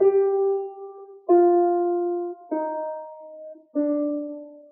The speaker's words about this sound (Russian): Пассакалья – это форма э, вариаций на один повторяющийся постоянно бас. И вот здесь эта тема звучит так, басовая тема, пассакалья.